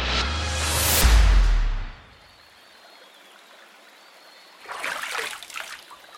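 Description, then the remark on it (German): A small jungle stream trickles and splashes, with a fuller rush of water at first, then a quiet steady trickle, and another burst of splashing near the end. “Das Flüsschen ist inzwischen noch breiter geworden. Bisweilen erscheint ein kleiner Zufluss und füllt es an.”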